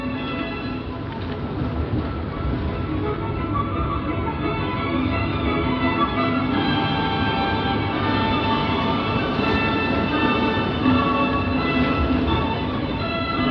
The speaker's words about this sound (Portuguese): Eu acho que a gente termina se viciando na, na adrenalina de, de uma boa tempestade.